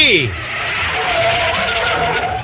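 A car brakes hard to a stop at a motel entrance, its engine note dropping at the start and a sustained loud hiss of tyres with a thin squeal running through the whole moment.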